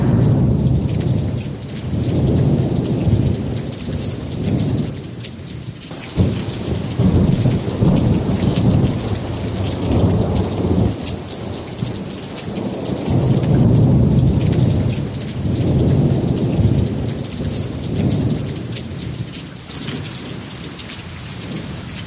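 Heavy rain pours steadily and loudly while deep rolls of thunder swell and fade several times underneath, with no voices, just the dense hiss of the downpour throughout.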